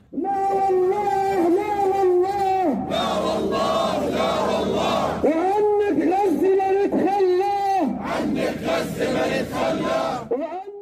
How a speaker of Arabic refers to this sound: صدح صوت هتاف المسيرات من عمان ومن عدة محافظات على غرار 16 جمعة سابقة انطلقت المسيرة الأكبر من الجامع الحسيني في وسط العاصمة عمان